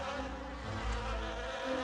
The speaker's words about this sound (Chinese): 突然，一只小蜜蜂嗡嗡地飞了过来。